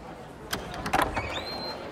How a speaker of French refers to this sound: Les portes finissent enfin par s'ouvrir et c'est une véritable marée humaine qui déferle dans les rayons.